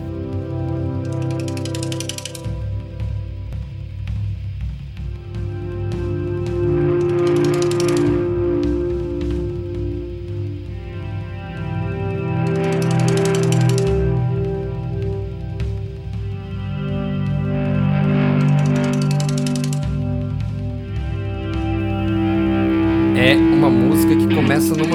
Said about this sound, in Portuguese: viagem assim de guitarra fazendo um som que parece baleia cantando mesmo.